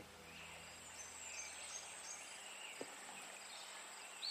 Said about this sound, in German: Du siehst das Grün der Bäume und du hörst das Singen der Vögel.